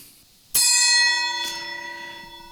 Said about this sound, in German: äh, willst du Gong? Genau, Gong mal.